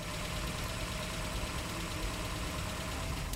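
A militia jeep that has just pulled up idles steadily with a low, continuous rumble and faint rattling knock, holding an even level throughout with no voices.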